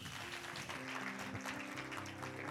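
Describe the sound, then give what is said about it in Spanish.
An audience claps its hands for Jesus in a dense, steady patter of many overlapping claps, held at an even level throughout, with a low sustained tone humming underneath. “Amén, dele palmas a Jesús.”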